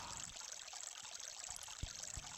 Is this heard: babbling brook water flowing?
yes